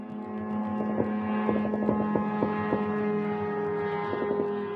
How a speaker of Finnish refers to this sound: Shahed-lennokit lentävät matalalla ja hitaasti ja pitävät kovaa, säksättävää ääntä. Siksi niitä kutsutaan myös lentäviksi ruohonleikkureiksi tai mopoiksi taivaalla.